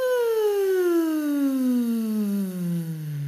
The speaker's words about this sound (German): Das heißt, die können jetzt arbeiten und wir können ein Glissando machen. Das heißt, auf einem w mit ganz viel Luft die Stimme von oben runterfallen lassen. Klingt dann so.